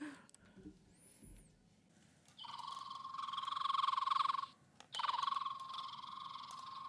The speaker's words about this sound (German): Wie heißt das Vieh? Fliegenschnapper. Rotbauchfliegenschnapper.